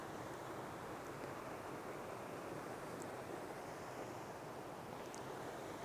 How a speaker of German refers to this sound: Also jetzt nutze ich quasi den kleinen Gegenwind von rechts, das ist mein Freund.